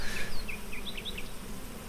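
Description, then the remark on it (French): A dense, steady drone of many honeybees of a thriving colony buzzing in an opened beehive, a continuous swarming hum filling the whole clip, with a few faint high chirps flickering above it. “C'est un grand bonheur pour l'apiculteur euh, d'ouvrir la ruche et de trouver une colonie qui marche bien.”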